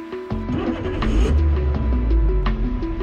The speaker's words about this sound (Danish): En podcast om det der irriterende øjeblik, hvor din bil går ud.